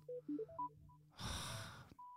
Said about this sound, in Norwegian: Nå ringer det her igjen.